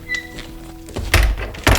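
door being pushed open

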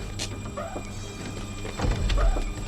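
door opening

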